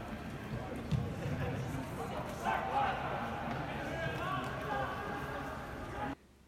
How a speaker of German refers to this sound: Ja, und was ihr jetzt gehört habt, das war das erste Geisterspiel der Bundesliga in der Geschichte der Bundesliga, um genau zu sein. Gespielt haben hier Borussia Mönchengladbach gegen den ersten FC Köln.